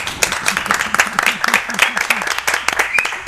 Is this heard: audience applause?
yes